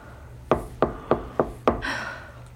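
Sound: knocking on a door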